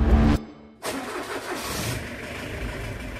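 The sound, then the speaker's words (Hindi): A taxi's engine cranks, dies briefly, then catches and starts, settling into a steady running hum as it pulls away from an STD phone booth in Rajasthan, heading for Uttar Pradesh; moderately loud, with no voices. “कुछ देर बाद STD booth से बाहर आए पैसे दिए और फिर गाड़ी में बैठ के चल दिए”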